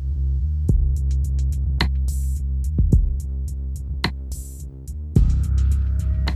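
A deep, very dark bass line throbs low and steady through a music track, with sparse crisp percussive ticks and hits scattered above it and no voices.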